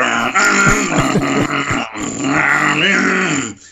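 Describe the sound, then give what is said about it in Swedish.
A person growls out a loud, continuous imitation of a revving car engine, the rough buzzing tone rising and falling in pitch for a few seconds before cutting off. “Man typ såhär, yes det här är så jag vill att min bil ska låta.”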